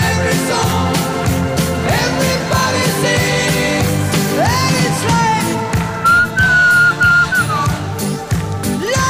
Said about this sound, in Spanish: No, no, pero tenés ahora ¿eh? tenés que, cuando vuelva el estribillo tenés que silbar de nuevo.